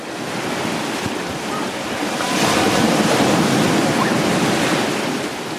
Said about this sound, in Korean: 제주도 바닷소리 너무 듣기 좋았는데 한 번 더 들어볼까요?